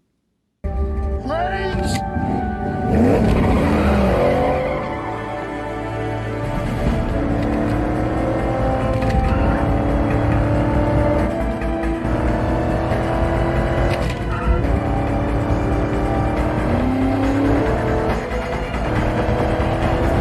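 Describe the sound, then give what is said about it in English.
A car engine revs hard and roars for the whole stretch, its pitch climbing and dropping repeatedly, while tires skid and squeal beneath the din, as Nick Cage's character guns the car and skids off the back of an ambulance. “He just kind of skids off the back of the uh, the ambulance as he goes across the”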